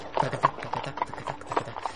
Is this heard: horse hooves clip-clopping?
yes